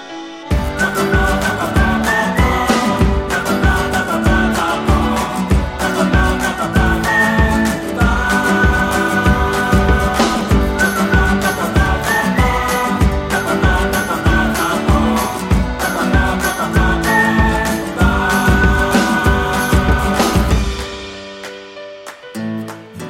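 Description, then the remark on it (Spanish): An upbeat instrumental theme tune plays loud and up front, driven by a steady, regular beat under layered melodic lines, then winds down and fades out near the end. No one speaks. “toca leyenda titulada El loro enjaulado, sintonía y comenzamos”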